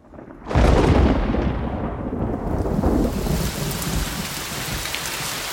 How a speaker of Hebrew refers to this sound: מה? גשם? בדיוק סיימנו לתלות את הקישוטים. הכל ייהרס. אמא, יובל, אתן לא רואות שהתחיל גשם?